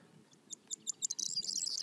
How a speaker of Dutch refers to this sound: Hij zit in het topje van die boom. Hier. Een grauwe gors. Eh, waarom maken we daar zoveel fus om? Er zijn maar 40 koppels niet meer in Vlaanderen. En gehoord, ze noemen die de rammelende sleutelbos.